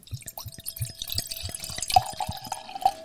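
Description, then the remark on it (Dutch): Wine glugs out of a screw-cap bottle into a glass in quick, rhythmic pulses, captured with a special wine microphone, with a faint ringing tone that rises slightly as the glass fills. No one speaks. “dus die, eh, die, neemt eh, de geluiden van schenkende wijnflessen.”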